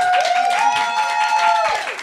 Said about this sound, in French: On applaudit encore